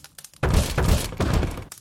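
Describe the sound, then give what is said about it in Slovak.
Three heavy, firm knocks on a front door in a steady rhythm, each a loud booming thud with a brief rattle, after a moment of near silence. “kto si rázne zaklope na vchodové dvere.”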